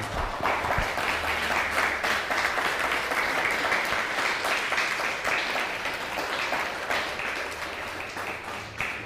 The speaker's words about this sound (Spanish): Un fuerte aplauso al Todopoderoso.